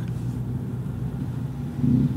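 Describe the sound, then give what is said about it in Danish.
Steady low engine drone and road rumble from inside a moving car packed full of people in fairly heavy traffic, with the engine swelling slightly louder near the end as it accelerates. “Det er sådan rimelig trafikeret, men vi sidder helt proppet i min mosters bil.”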